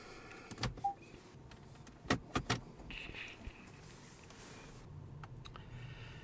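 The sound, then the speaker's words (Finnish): A Peugeot 508 RXH diesel hybrid car runs quietly in electric mode in a parking garage, almost silent, with a faint low cabin hum and a few sharp clicks and switch sounds scattered through it. “Nyt tämä auto on käynnissä.”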